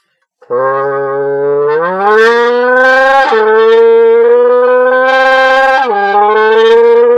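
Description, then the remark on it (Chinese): A voice imitates a high-revving Honda VTEC engine after the VTEC valve opens: one loud, unbroken buzzing drone that climbs in pitch in stages, with brief dips like gear shifts, for about seven seconds. “我相信很多本田粉丝都会都会模仿这个叫开 tag 的这声音，就是本田的 VTEC 发动机，嗯，开了这个打开这个 VTEC 阀门以后的声音，就是变得特别高亢。我再学学啊，学的不太像。”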